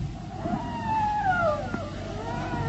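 A long, mournful howl rises and slowly falls in pitch, drawn out over a couple of seconds and echoing through the surroundings, against a low, steady rumble, on a full-moon night after a storm, sounding eerie.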